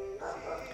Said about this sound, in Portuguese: Muitos de vocês vão ouvir os cachorros latindo ao fundo dessa oração.